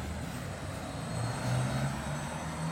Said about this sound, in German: das ist jetzt bereits die neue Generation. Das ist irgendwie so ein Elektrobus.